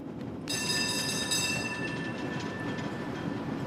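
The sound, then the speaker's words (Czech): A tram rumbles steadily along its rails, continuous, as a high metallic wheel squeal rises early and lingers as a thin, sustained whine over the low rolling noise. “Vážený pane, já se s cizími muži v tramvaji nebavím.”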